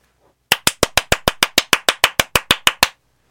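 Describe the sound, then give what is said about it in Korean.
A clapping sound effect played on a radio show for a listener's birthday: a steady run of about fifteen sharp, bright hand claps at an even, brisk pace, loud and alone with no talking, then it stops abruptly. “올해도 이 박수를 피해 가실 순 없을 겁니다.”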